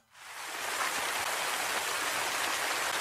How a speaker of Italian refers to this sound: Allora, abbiamo a disposizione diversi tool per mixare i suoni che ci piacciono, quindi tipo la pioggia,